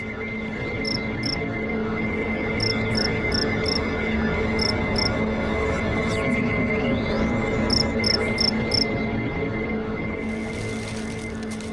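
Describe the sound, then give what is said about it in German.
A single cricket chirps at night in a decaying suburb, in short, evenly spaced bursts over a steady low rumble and background hiss, with a brief airy rustle of wind in the grass near the end. No one speaks. “Lange war eine vereinzelte, leichtsinnige Grille und das Rascheln des Windes in den Grashalmen der zerfallenden Vorstadt das einzige gewesen, was die Nacht erfüllt hatte.”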